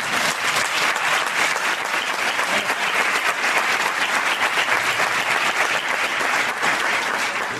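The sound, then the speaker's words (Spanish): Sustained, loud applause from an audience for the invited guests at an event, a dense wash of many hands clapping steadily without letup for several seconds, with no talking over it. “Dice, vamos a dar un fuerte aplauso a los invitados.”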